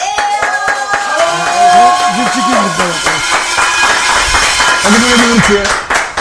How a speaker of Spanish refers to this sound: Este, bueno, y vamos a recibir con un muy fuerte, muy, muy, muy fuerte aplauso